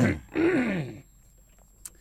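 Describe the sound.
Someone clears their throat into the mic in two quick, rough bursts, the second longer and voiced, followed by near silence with a faint click.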